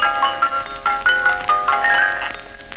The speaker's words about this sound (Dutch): Ja, en voor de duidelijkheid, dit was dus niet de eerste uitzending, maar dit geluid wat je hoorde kwam uit de eerste uitzending, het orgeltje.